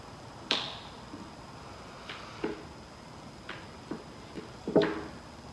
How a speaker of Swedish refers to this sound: Ja, men det är ljudet av klädprassel liksom.